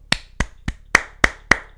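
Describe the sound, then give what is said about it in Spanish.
Six sharp hand claps in a steady, fairly quick rhythm, each a crisp, bright smack, with no voices alongside. “Si habéis llegado hasta aquí, ole vosotros, un aplauso.”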